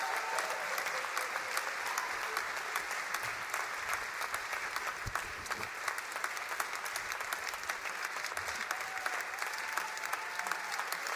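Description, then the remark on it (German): Sustained applause from a large audience, clapping for the speaker's wife as she is called onto the stage. Dense rapid clapping fills the whole stretch at a steady, fairly loud level, with faint crowd murmurs mixed in. “ich bitte euch einmal für meine Frau, einmal äh, ordentlich zu klatschen.”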